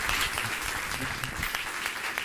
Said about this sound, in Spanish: Dele ese fuerte aplauso